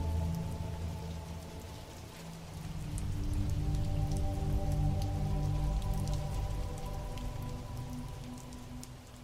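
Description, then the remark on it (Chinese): Steady rain falls without pause, a dense hiss of drops pattering on a surface with a low rumbling undertone that swells slightly midway. No voices are present. “雨正在下着，老天为烈士垂泪，印度河也在哀嚎。”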